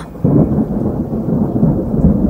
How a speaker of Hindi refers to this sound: आखिर एक दिन काले काले बादल आसमान पर घिराए और छाजों पानी बरसने लगा